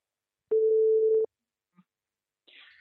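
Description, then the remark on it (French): A telephone call is placed: a single steady dial tone holds at one mid pitch for under a second, then cuts off, followed by a faint click and a brief, soft higher-pitched burst of line noise. “On l'appelle tout de suite.”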